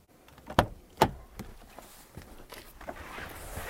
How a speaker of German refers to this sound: Kurz zu seinen anderen Qualitäten. Die hinteren Türen gehen extrem weit auf. Einsteigen ist super leicht.